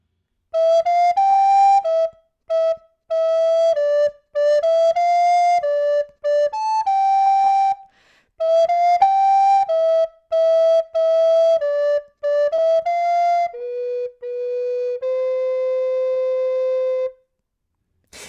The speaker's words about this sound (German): könnte ich dir auch das Kinderlied Kommt ein Vogel geflogen ans Herz legen, das ja. vielleicht jeder kennt. Ich würde es mal ganz kurz vorspielen.